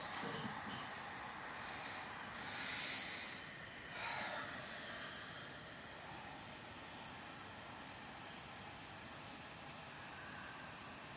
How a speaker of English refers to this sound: If you have not already, begin Ujjayi Pranayama by breathing in and out through your nostrils and drawing in a gentle contraction at the back of your throat.